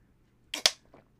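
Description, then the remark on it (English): A plastic water bottle crackles sharply as someone drinks: two loud, crisp crinkles in quick succession, then a softer third, with no talking. “Why are you like crackling the bottle?”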